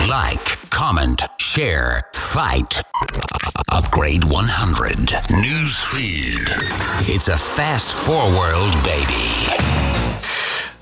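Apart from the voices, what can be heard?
show jingle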